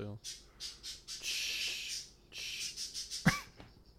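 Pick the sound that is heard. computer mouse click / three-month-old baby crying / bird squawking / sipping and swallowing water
bird squawking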